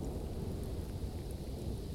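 Steady rain pours down with a low, rumbling wind roar underneath, a dense continuous wash of noise with faint rolling thunder-like depth and no voices.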